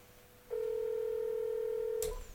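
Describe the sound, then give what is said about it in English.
A single steady electronic telephone tone on an unanswered phone call to a guest sounds for about a second and a half, clear and unbroken, then cuts off with a sharp click. No one speaks. “It doesn't look like he's going to pick up the phone.”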